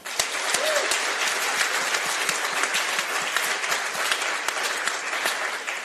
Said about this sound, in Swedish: Ge en varm applåd till Jonathan Unge.